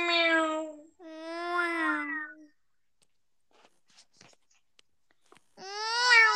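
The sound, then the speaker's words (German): A person imitates a cat with three loud, drawn-out meows. The first two come back to back, then a quiet pause with faint clicks before the last one. “Dann mache ich direkt miau. Weißt du, da kommt direkt dieser Sound, dieses miau.”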